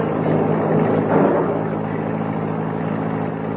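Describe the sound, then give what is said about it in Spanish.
The engine of a black car approaching and slowing down rumbles steadily with a low droning hum, swelling briefly early on before settling into an even, continuous tone. No voices are heard. “Allá viene un auto negro. Parece que se viene más despacio.”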